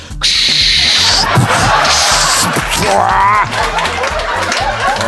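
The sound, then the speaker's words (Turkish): A voice imitates a landing cargo plane, with a steady, breathy whooshing roar and a brief rising whine partway through, sustained loudly for about five seconds. “Ben inen uçak taklidi yapmaya çalışıyorum ve çok kötü yapıyorum.”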